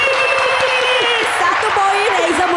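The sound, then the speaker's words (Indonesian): Steady, dense clapping from a crowd fills the whole stretch, a loud continuous patter with some voices and a wavering cheer-like tone riding on top. “Tepuk tangan buat”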